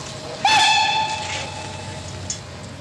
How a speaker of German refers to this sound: Ah, mein Zug.